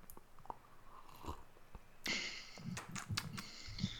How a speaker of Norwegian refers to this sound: Nå har jeg poppa whiskyflaska i stad, og så vil jeg liksom ikke slurpe av whiskyen heller. Men jeg tar en liten sipp av eh, mitt eh, whiskyglass.